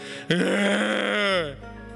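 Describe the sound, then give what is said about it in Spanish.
A person imitates a panting, bellowing deer: one long, loud, strained groan-like cry lasting about a second, rich and harmonic, rising then sliding downward before cutting off into quiet breathiness. “Pero más o menos así es un siervo bramando, jadeante.”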